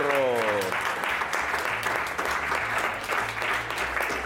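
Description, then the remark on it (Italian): Sustained audience applause, a dense wash of steady clapping that stays loud throughout, with a brief tonal sweep at the very start and a low hum underneath. “grande applausometro.”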